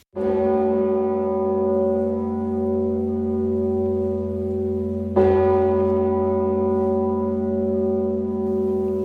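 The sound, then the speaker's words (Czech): A huge, deep bell of St. Vitus Cathedral tolls two single strokes about five seconds apart, one stroke for each of the dead, each loud clang blooming into a long, humming resonance that never fully fades before the next. “Za každého zemřelého také chrámový zvon Zikmund odbil jeden úder.”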